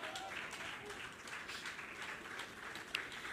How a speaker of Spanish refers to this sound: Dele palmas al Señor.